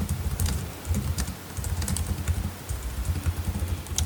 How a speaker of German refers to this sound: Ich finde es ulkig, dass wir jetzt gerade dein Tippen gehört haben. Ich hoffe, das ist auf der Aufnahme auch drauf. Stimmt. Ich habe eben schon mal ähm, heimlich angefangen zu tippen